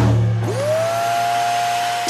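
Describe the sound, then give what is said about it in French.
A robot vacuum cleaner's motor spins up after a low hum, rising into a steady, loud whine over a constant airy rush as it cleans the home, without any voices. “C'est votre nouvel aspirateur robot qui fait le ménage pendant que vous réservez vos vacances dans le sud.”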